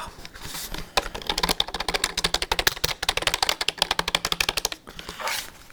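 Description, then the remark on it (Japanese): Rapid clicking of computer keyboard keys being typed, a fast irregular burst of crisp taps, running steadily for several seconds with no voices. “キーボードの叩く音やっていきたいと思います”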